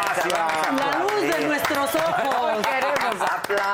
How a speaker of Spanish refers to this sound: Y te vamos a aplaudir.